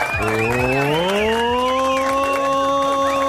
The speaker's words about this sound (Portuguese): Palmas